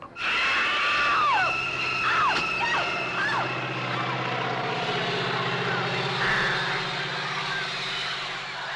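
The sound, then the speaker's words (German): In a scene from an Alfred Hitchcock film, a propeller plane chases a man over a stubble field; its engine drones loudly and steadily throughout, with a few brief rising-and-falling wails cutting through early on. “Ein Flugzeug, das einen Menschen über ein Stoppelfeld jagt.”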